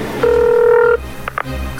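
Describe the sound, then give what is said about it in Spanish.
A single steady electronic telephone tone of an incoming call sounds for under a second, clear, followed by a couple of brief clicks against a low background hum. “ese Erasmo marcándome otra vez. Tengo que cambiar de número de teléfono ya.”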